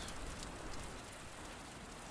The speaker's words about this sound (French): Il sent les gouttes de pluie sur son crâne et l'eau qui remonte dans ses chaussettes.